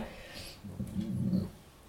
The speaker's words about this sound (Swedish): hörde du hunden rapade?